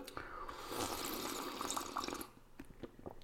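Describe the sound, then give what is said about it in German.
Freshly tapped caffeinated apple spritzer is poured into a glass, a steady bubbling rush for about two seconds, followed by quieter settling fizz and a few soft drips or clinks. “Zuvor erstmal ein Schlückchen frisch gezapfte koffeinhaltige Apfelschorle zum Wohl.”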